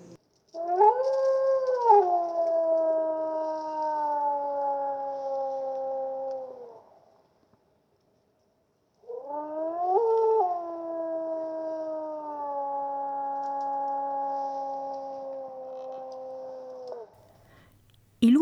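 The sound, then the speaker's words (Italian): Two long, mournful howls from wolves living in a park, each rising briefly then holding a steady drawn-out tone for several seconds, separated by a short silence. No one speaks. “lupi vivono nel parco da tempo immemorabile.”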